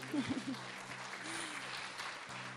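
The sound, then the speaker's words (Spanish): An audience applauds steadily at the Intersecciones show, a dense wash of many hands clapping at an even, moderate level for the whole stretch, with a low electrical hum underneath. “Para seguir con más música, aprovechando este aplauso.”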